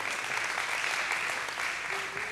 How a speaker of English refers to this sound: Yeah, give, give, give the Lord a hand clap. Thank you, Lord.